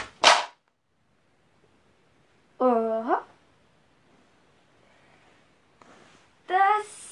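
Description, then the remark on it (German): Pens drop to the floor with a single sharp, loud clatter at the start, followed by a couple of short voiced exclamations separated by quiet pauses. “Äh, ja, Entschuldigung, meine Stifte sind nämlich hier gerade runtergefallen.”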